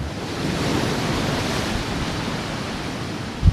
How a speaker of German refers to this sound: Ich war an einem sehr, sehr stürmischen Tag hier. Sie hören es ja gleich schon. Die Brandung des Meeres, die hören Sie hier.